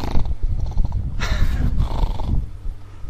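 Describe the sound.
A person imitates a growl with a low, rough, continuous rumble lasting about three seconds, broken by a couple of harsher breathy bursts. It is fairly loud, with no words spoken.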